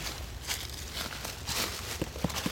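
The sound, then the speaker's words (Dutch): Footsteps crunch along an outdoor path around the corner of a beech tree, a handful of uneven steps against a soft background hush, with the last few landing a little sharper and louder. “Kijk, als we om de hoek lopen van de beuk, zie je hier nog mooiere exemplaren.”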